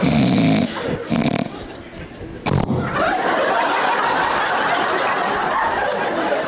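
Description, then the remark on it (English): A voice imitates a husband's loud snoring with rough, rasping snorts in the first few seconds, followed by a sustained swell of audience laughter. “but they don't know because some of them snore so loud they wake themselves up.”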